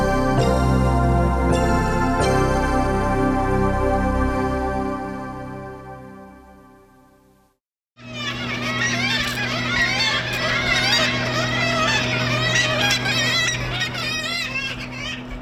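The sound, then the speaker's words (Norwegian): Seagulls screech and cry over one another in a street and town square in Tromsø, Norway, in summer, with a steady low hum beneath them. A sustained musical tone fades out just before the gulls begin. “For mange lyden av sommer, eller lyden av måker som snapper maten ut av hendene på deg på gaten.”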